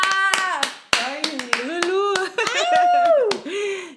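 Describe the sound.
Applause welcoming a guest, loud, scattered handclaps, irregular and sharp, mixed with voices calling out over them, filling about four seconds before fading.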